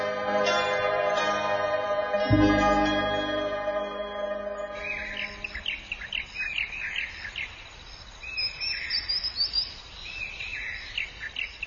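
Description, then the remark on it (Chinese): Sustained musical tones with a single low thump fade out, giving way to bright, high bird chirps and short twittering calls repeating over a steady background hiss in Nansha Wetland, Guangzhou, heard from a boat on waterways among plants. “坐在船上，穿行在被各色植物包裹的水路上，听着见货传来的鸟鸣声，好不惬意。”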